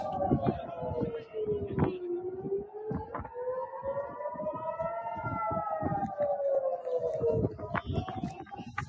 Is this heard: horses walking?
no